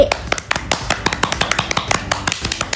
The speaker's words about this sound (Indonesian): harus ada teammate-nya guys emang keren-keren banget effort kelas 8 untuk FF tahun ini. Kita kasih tepuk tangan dulu nggak sih?